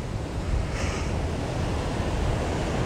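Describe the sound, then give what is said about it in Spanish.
Ocean waves at sunrise wash in a steady, continuous roar, fairly loud and broad with a slight swell near the start, with a windy, noisy texture and no voices. “Pero aquí estamos, con el mar de fondo, mientras el sol se asoma,”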